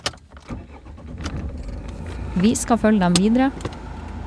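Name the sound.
inside a car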